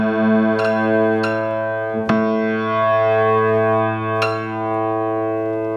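A single note on a piano being tuned rings steadily, struck again a few times, its sustained tone holding smooth and even with no audible wavering, as two strings sound in perfect unison.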